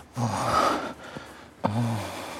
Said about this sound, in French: Dans le sexe, et plus particulièrement au moment de l'orgasme, on laisse le son brut prendre le dessus sur la parole. On ne produit pas de discours, mais des signaux vocaux plus ou moins intenses, des souffles, des gémissements, des râles